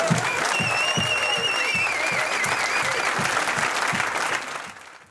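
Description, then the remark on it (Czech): A crowd applauds the researchers whose work helped lead to this year's Nobel Prize, dense clapping that holds at a strong level for several seconds, with a few faint whistle-like tones on top, before fading out at the end. “And I think now you should, should give some applause also to you guys.”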